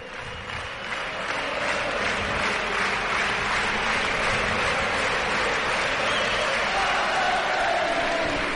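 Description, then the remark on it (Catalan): A large indoor basketball crowd breaks into sustained applause and cheering for a player returning after more than a month out injured. It is a dense, steady roar of clapping that swells in the first seconds and holds loud throughout. “Ovació perquè torna Andrés Feliz després d'un mes i una mica més de baixa.”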